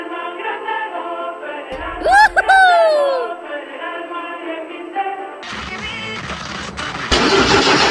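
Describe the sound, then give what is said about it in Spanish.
A car engine cranks over and over in a steady, strained drone, trying to start, with a brief swooping sound in the middle and a rougher, louder burst toward the end. “¿Y arranca o no arranca?”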